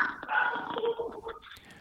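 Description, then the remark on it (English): Two dogs, a goldendoodle and a Labrador mix, bark and yelp in a continuous stretch of overlapping calls lasting a couple of seconds, with no one talking over them. “There are some of those dogs you love.”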